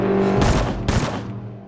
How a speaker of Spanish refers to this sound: Se oyen los tiros y mi marido dice, ¿dónde son fiesta que hay cohetes. Y salgo yo y le digo a Juan, ¿qué dices, cohetes? Si son tiros. Porque fueron siete tiros los que pegaron. Siete.